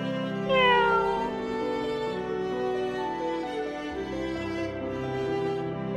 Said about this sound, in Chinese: 而我也只是静静地待在他的身边，听着他说话，偶尔发出喵喵喵的叫声。